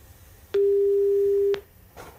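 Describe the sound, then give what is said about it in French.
A single steady ringback tone of an outgoing phone call: one clear, mid-pitched electronic beep lasting about a second, with soft clicks at its start and end, then quiet line. “Oula, 4 sonneries, attention.”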